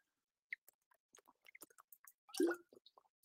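sipping and swallowing water

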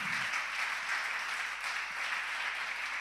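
audience applause

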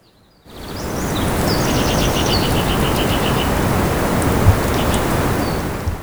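birds chirping outdoors

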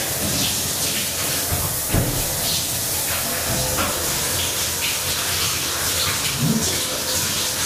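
shower running water

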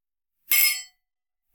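glasses clinking together

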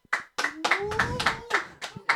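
clapping applause

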